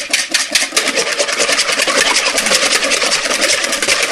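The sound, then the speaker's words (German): An electric mixer whips three egg whites into stiff snow, whirring steadily at high speed, a loud, continuous buzzing drone with a fast rhythmic pulse as the beaters whip, running without a break and with no talking. “Eben die Finger ein bisschen waschen dann einfach schlagen. Wird jetzt ein bisschen laut.”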